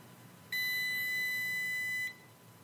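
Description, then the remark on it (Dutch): A Focusbox timer lock box holding a phone, set to two minutes, gives a single long, steady electronic beep lasting about a second and a half as it locks, loud against a quiet background, with no talking. “En dan telt hij af.”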